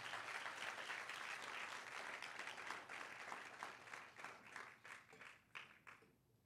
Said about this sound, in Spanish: Si tú lo crees, dar un aplauso fuerte en esta mañana al Señor.